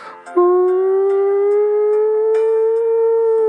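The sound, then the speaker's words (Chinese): A voice mimics an air raid siren: one loud, sustained, rising wail with a steady harmonic tone that slowly climbs in pitch and holds for about three seconds. “就这种警报，对吧？哎，我学的还挺像的，就这种警报”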